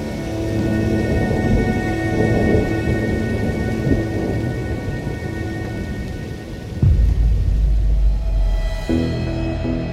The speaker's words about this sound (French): Mais attention danger, tout pourrait basculer si l'orage vient frapper le lac.